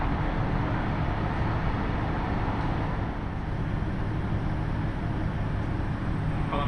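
A steady, low diesel engine of a KiHa 75 railcar idles at a platform of Gifu Station on the Takayama Main Line, the 16:45 local train to Tajimi, a constant rumbling drone with faint mechanical hum and no other distinct events, heard alone without speech.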